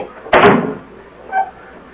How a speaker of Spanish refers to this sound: Cierre la puerta. Ciérrela.